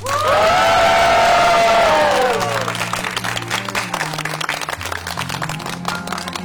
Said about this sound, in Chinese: 好的，那我就替上海市浦东新区民政局宣布，今天两位新人正式结为合法夫妻，大家鼓掌祝贺。